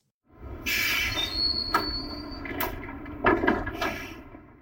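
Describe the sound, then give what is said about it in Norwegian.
A tram rumbles steadily along the rails, with a low continuous roar, a thin metallic squeal near the start and several sharp clanks and knocks as it passes. “trikken uh, dundrer videre her også.”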